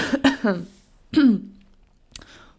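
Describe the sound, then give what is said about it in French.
A heavy, wet cough rattles out in a few harsh, throaty bursts, with quiet pauses between them and a short final hack. “Waouh, c'est chaud de commencer un épisode comme ça avec une grosse toux bien grasse.”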